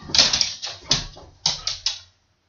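A female dog needing water whimpers in a run of about six short, breathy whines in two quick clusters, with no one talking, ending in silence.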